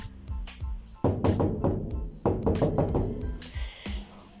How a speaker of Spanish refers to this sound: Mientras se limaba sus garras, lo sorprendió un golpe en la puerta.